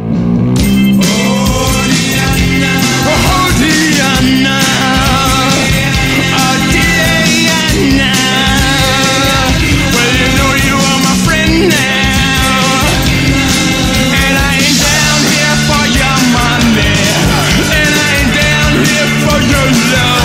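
A rock song plays loudly and continuously, with dense, steady instrumentation filling the whole stretch and no one talking over it.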